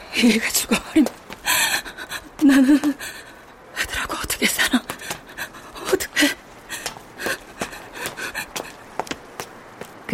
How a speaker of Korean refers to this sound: 그는 옹벽이 난간에 기대 숨을 헐떡이고 있었다.